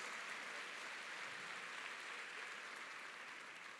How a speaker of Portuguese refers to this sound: Uma salva de palmas para Jesus ou não, hein?